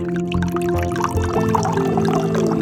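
Liquid glugs and splashes steadily as it pours from a bottle for a few seconds, clear, over a low sustained musical tone, with no one speaking.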